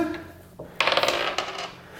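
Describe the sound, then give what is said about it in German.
A single die clatters onto a hard tabletop in a quick burst of rattling clicks that bounce and settle within about half a second, with a faint tap earlier and no talking. “Ich habe vergessen, einen Würfel zu holen.”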